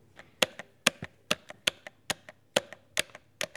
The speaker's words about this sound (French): Elle appuya sur tous les boutons.